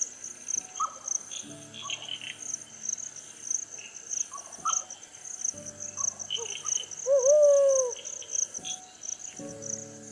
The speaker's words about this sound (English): The brown wood owl's loud hoots are a reminder of how late it is.